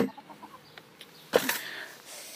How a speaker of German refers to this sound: also mein Huhn